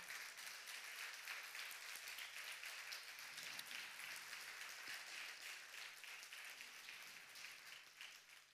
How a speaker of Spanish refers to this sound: Pido un aplauso al cielo solamente para Él.